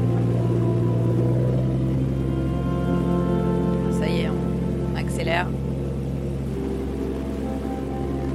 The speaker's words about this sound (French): parce qu'en fait ils passent dessous, sous le filet qui laisse échapper plein d'eau à grosses gouttes. Et, euh, voilà, ils sont les pieds, les mains et tout le corps dans l'eau.